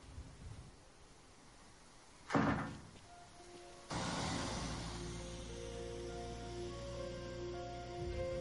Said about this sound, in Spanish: les cierra la puerta.